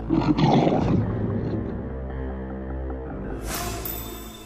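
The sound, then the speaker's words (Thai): A lion's deep, rumbling roar, loud, rising sharply at first and then sustained with a growling low drone, ending in a brief hiss of noise, as the lion pounces on a horse to eat it. “ระราชาเมื่อทราบว่าสิงโตมาตะครุบม้าไปกิน”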